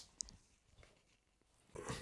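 A dog gives a brief, whiny vocal burst, preceded by a soft click and faint shuffling. The sounds are fairly soft, with no talking.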